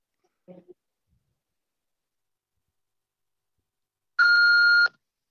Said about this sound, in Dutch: Spreek uw eh, ding aan naar de piep en geef uw ding in, eh, zodat ik u kan terugbellen. Dank u.